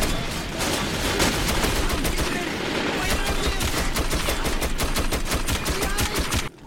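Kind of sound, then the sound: sound effect, gunfire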